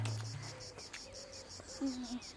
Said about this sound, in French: Ah, J'avais oublié ce chant si mélodieux des cigales.